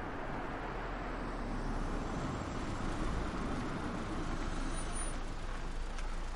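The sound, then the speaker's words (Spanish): A Guardia Civil police car drives along a street, its steady engine and tire rumble holding a constant level for several seconds with no siren and no voices. “El coche de la Guardia Civil circula por una calle.”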